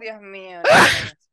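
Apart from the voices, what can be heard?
sneeze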